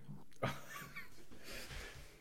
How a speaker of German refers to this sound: Die Hunde sind auch wieder fröhlich, wie man hört. Da haben sogar noch Elan, wollen gerne noch ein bisschen weiterspielen.